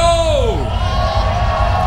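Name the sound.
concert crowd cheering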